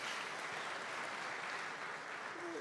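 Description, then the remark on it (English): A crowd applauds steadily to welcome the Prescott Valley campus, a dense wash of many hands clapping at a constant, fairly loud level for a few seconds with no voices standing out. “Yeah, you can give them a round of applause.”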